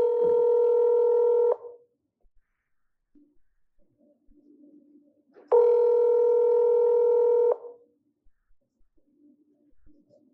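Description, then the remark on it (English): Two long, steady ringback tones of an outgoing phone call to Chad Daybell's phone number, recorded December 8 at 3:43 PM, each lasting a couple of seconds, separated by a pause with only faint low murmuring between them. “So here goes the phone call.”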